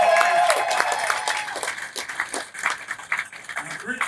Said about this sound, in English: a great round of applause for having us here